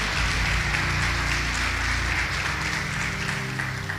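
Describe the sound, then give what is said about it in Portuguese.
A church audience applauds steadily for about four seconds, praising Jesus for a couple's 38 years of marriage: a dense, even wash of clapping with a low hum of background sound underneath and no speech over it. “Vamos aplaudir Jesus pela vida deles.”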